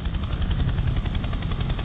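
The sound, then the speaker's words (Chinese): A US Navy CH-53 large transport helicopter, evacuating American staff from the US embassy in Saigon. Its rotor thumps steadily and rapidly, layered over a loud, continuous low-heavy engine roar that stays even throughout, with no voices. “那么，CH 五三虽然是世界上最大的直升机，但是一次呢也只能运走四十人，就这么急急忙忙的运了一天一夜。”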